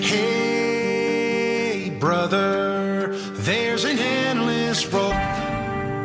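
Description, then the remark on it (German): A pop song plays on a radio broadcast at full, steady volume, with a male voice singing clearly over rich, sustained instrumental chords that run continuously from start to finish. “Wir machen jetzt äh, eine kleine Pause und zwar mit dem Musiktitel Hey Brother.”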